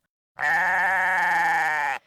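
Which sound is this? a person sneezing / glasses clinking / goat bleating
goat bleating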